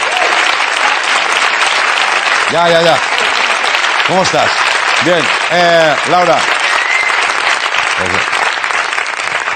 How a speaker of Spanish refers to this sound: Sí, un aplauso para ella.